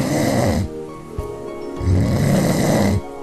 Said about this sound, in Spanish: Por ejemplo, cuando te asustas con la alarma del despertador o porque tu pareja ronca muy fuerte.